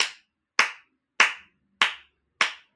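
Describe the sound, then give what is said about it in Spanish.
Five sharp, crisp hand claps ring out one at a time at a slow, steady pace, each with a brief trailing decay, with nothing else sounding between them, given as applause for the fans of women's football. “Entonces, yo le quiero dar un aplauso a la afición,”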